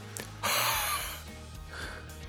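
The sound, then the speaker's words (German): A person breathes loudly into the microphone: one strong, breathy exhale lasting nearly a second, followed by a softer, shorter breath, with no talking. “Okay, Sie atmen noch.”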